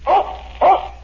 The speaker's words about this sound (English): That's my dog Tige. He lives in a shoe.